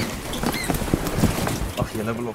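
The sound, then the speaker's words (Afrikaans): African penguins patter and scrabble about inside transport containers on an island as they are unloaded from a boat and carried to a holding point, a busy run of light taps and scratches with faint creaks, steady for a couple of seconds. “Op die eiland gekom trippel die pikke wyne binne hulle houers rond, soos wat hulle van die boot afgelaai na 'n gemeenskaplike punt gedra word en in 'n tydelike kampie gehou word totdat almal bymekaar is.”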